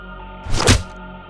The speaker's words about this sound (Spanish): Un nuevo golpe cae en su estómago dejándola sin aliento.